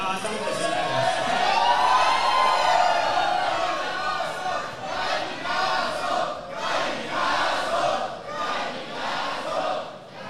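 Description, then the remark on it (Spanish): A large crowd, the audience, yells a 'gallinazo' battle cry together, loud and sustained for about ten seconds, with the massed voices swelling in rhythmic bursts toward the end. “Axel Onofre dice, oye, amerita hacer un gallinazo con todo y público.”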